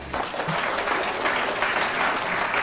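A crowd applauds at the speaker's request to show they understood, with dense, even clapping that stays at a constant loud level throughout and no voices over it.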